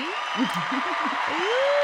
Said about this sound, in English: Hello, applause. You see, you see Norris back there with the sound effects. I like it, I like it.